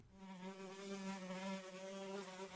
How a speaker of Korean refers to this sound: 어쩌면 파리가 나를 좋아하는 것인지도 모를 거야. 아침에 잠에서 깨어보면 이 파리들은 내 얼굴 주변을 웽웽거리며 붙었다 떨어졌다 한다. 나를 깨우고 있던 것이다.